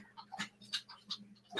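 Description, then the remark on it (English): A female boxer dog laps up water, with a few quiet, wet slurping splashes repeating in an uneven rhythm, with no talking. “Yes, that's my dog drinking water.”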